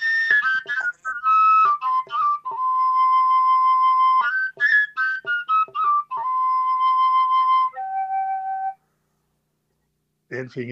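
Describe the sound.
A traditional flute made of PVC plays a lively melody of quick, bright notes jumping between overtones, with a few longer held tones, then a short pause before a brief voice.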